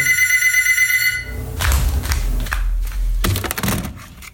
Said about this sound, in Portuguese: E olha lá! E olha o telefone tocando.